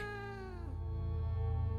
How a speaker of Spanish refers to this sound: Después de eso nunca recibí reportes similares, y aunque regresé al área, no volví a escuchar tan peculiar maullido. Cabe la posibilidad de que algún estúpido chico estuviese jodiendo a la gente que pasaba por ahí, pero debo admitir que fue raro.